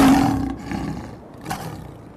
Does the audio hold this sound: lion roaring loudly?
yes